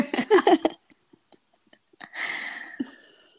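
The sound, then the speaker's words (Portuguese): A brief voiced sound and a few soft clicks, then a long, steady, breathy exhale as a person breathes deeply before answering, fading out slowly. “Tô respirando aqui.”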